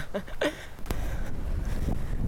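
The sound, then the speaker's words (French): Strong wind roars and buffets the microphone in a steady, rumbling gust that lasts throughout, with a brief human vocal sound near the start, on a wide open plain reached while climbing at the Savane des Pétrifications, Martinique. “Et on va arriver cette espèce de grande plaine où tu te prends le vent en pleine face. Ah, ça commence.”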